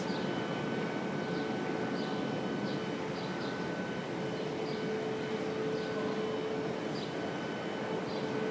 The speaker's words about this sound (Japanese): この空港の中なんですけどこれ今もうエアサイドというあのこれから飛行機に乗るっていう側なんですけれどもお庭が作ってあるんですよねなので外に出られるんですよ